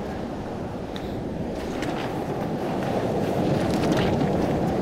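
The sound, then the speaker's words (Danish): Steady, loud, cold wind buffets the microphone outdoors at the shore, a dense low roar that holds constant for the whole stretch with faint brief crackles above it and no one speaking. “Jeg kan også godt mærke, at kinderne, dem, ja. dem, dem bider godt vinden.”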